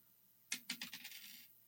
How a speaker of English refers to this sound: do you want to do a four-sided dice? Yeah, let's do a four one, four ski.